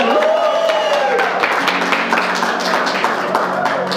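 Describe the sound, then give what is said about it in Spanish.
A crowd at a church sermon breaks into loud, dense applause for someone's birthday that continues steadily for the whole stretch, with a few raised voices and a sustained tone rising above the clapping at the start. “Un aplauso”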